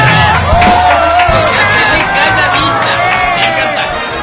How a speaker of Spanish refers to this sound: Y es lo mismo que te decimos a ti, que seas muy, pero muy feliz porque te lo mereces. Estos aplausos son para ti.